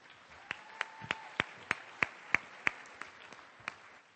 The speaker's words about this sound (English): Our president, ladies and gentlemen, another round of applause for Peter Mindnich.